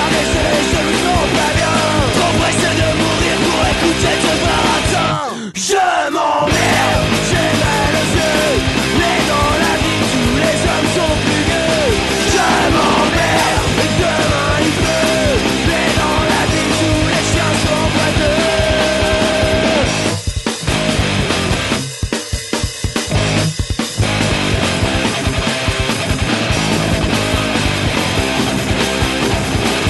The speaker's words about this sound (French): extrait de leur premier album euh, qui s'appelle …. C'est trop deep. Euh, je sais plus de quand il date, euh, ça doit être 2003 cet album